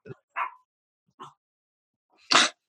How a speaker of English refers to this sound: it's my my dog Wolfgang